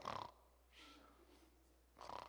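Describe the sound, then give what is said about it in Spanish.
A voice mimics the snoring of a Christian who falls asleep while praying in bed: a harsh rasping snore, then a softer drawn-out breathy rattle, and another loud snort-like snore at the end, fairly loud, no words spoken. “tres ronquidos y después empiezas a pedir otra vez.”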